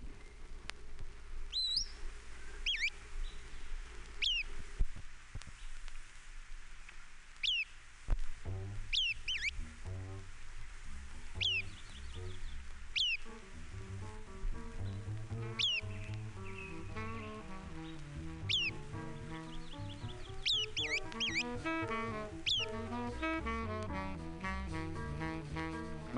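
Sharp, high chip calls of a MacGillivray's warbler repeat at irregular intervals, clear, over a steady low rumble of background noise with no talking.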